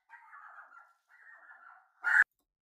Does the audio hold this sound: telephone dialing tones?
no